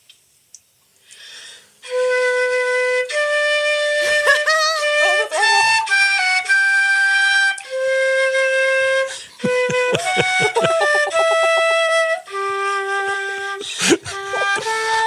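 A transverse flute plays a melody up close, mostly long sustained notes with a few quick runs and short detached passages, clear and fairly loud with no voices.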